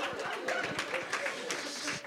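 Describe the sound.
An audience applauds, a steady wash of many hands clapping at once with a murmur of crowd voices mixed in, holding at an even level throughout.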